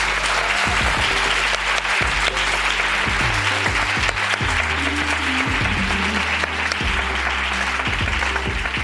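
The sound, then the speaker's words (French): Steady audience applause at the end of a live event at Point éphémère, a dense crackle of many hands clapping continuously for several seconds at an even, fairly loud level, with a low hum underneath. “Je vous applaudis.”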